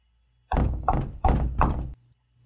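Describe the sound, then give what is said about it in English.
Four loud, heavy knocks on a great big wooden door, evenly spaced, each a deep resonant thud, with no voices. “He knocked on the door. And the door knocked back.”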